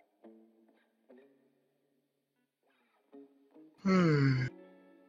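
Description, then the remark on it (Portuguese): A person lets out a loud, voiced yawn with a falling, groaning pitch near the end, preceded by a few short, soft vocal murmurs and pauses. “Sempre que eu vou bocejar, porque às vezes eu odeio bocejar, às vezes eu adoro bocejar.”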